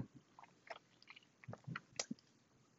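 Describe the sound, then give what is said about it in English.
A person munches on pancakes and an egg sandwich with soft, irregular crunches and wet mouth clicks at a low level, ending in one sharper, louder crunch. No one speaks. “I'm sorry if you hear me eating or munching.”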